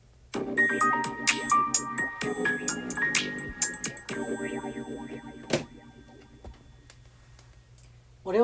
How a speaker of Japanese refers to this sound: なんか音楽音楽とともに始めようかな。